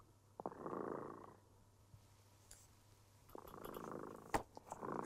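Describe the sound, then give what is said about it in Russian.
A cat, Tremota, purrs in two soft, rumbling waves, one breath in and a longer swell later, fairly quiet with a faint steady hum underneath and no talking. “Кот Тремота запел свою колыбельную песенку. Это значит, что пора засыпать.”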